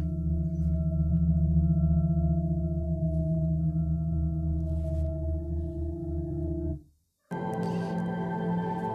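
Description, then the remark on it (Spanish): Eerie sounds of open space recorded by a NASA spacecraft travelling through the solar system: a steady, layered electronic hum of sustained tones that drops out briefly near the end, then returns brighter and hissier. No one speaks. “Así suena el espacio.”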